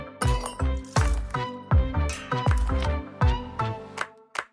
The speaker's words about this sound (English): live from a cafe in central London.